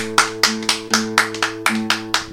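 Steady rhythmic clapping, about nine sharp claps at an even brisk pace, over a sustained low musical drone; no one speaks. Applause for a guest, in Uruguay.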